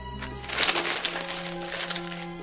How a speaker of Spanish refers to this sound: Dentro Arthur clasifica los papeles en montones sobre la mesa.